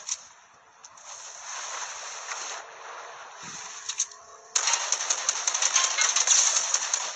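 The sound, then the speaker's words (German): A motorboat engine in a video game hums with a steady, rattling drone that suddenly swells louder about halfway through, buzzing on with a gritty, clattering texture. No one speaks. “Boot.”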